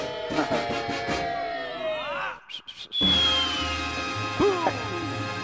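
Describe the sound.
A voice imitates a mambo bandleader's shout: wavering, pitch-sliding vocal cries, a brief break, then a high drawn-out squeal that sinks slowly, with a short sharp yelp near the end.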